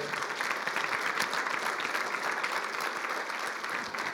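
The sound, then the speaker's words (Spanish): An audience applauds the Lord steadily, a dense wash of many hands clapping at an even level throughout, with faint voices mixed into the clatter. “Puedes dar un fuerte aplauso al Señor en esta hora.”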